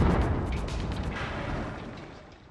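A loud explosion sound effect with a deep rumbling boom that starts at full force and slowly decays over a couple of seconds, with crackling debris-like noise on top.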